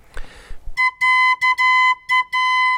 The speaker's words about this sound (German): Diese Pfeife zum Beispiel hier ist einen ganz kleinen Tick zu langsam. Die mache ich jetzt schneller, indem ich mit dem Draht Kern nach unten schlage.